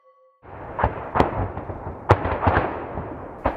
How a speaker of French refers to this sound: Ça, c'est le bruit de la guerre dans l'Est, dans la région de Donetsk.